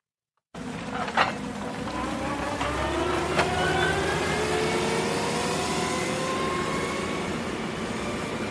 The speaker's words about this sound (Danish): Jeg står her på en øh, byggeplads i Rigskov i Aarhus på en grå novemberdag. Det er det gamle psykiatriske øh, hospital, der er ved at blive bygget om.